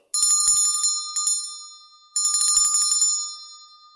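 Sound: bell chime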